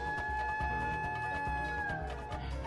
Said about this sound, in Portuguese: Tem uma cuíca, velho, agora que eu fui ouvir. Nossa, bem de fundo, né, é verdade? Uhum, parece um pássaro de fundo.